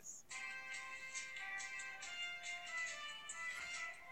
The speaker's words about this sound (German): Äh, ist das dein Handy? Ja, das ist Pokémon Go gerade. Es hat gerade gestartet. Ich habe es vor fünf Minuten angemacht. Jetzt hat es geladen.